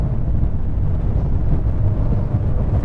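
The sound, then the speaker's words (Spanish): A loud, steady low rumble of a hybrid SUV's engine under hard acceleration, heavy with a dense roar and some wind-like noise, continuing without a break and with no one talking; the car accelerates forcefully like a sports car. “el carro se comporta como si usted estuviera en un carro deportivo y acelera de una manera contundente.”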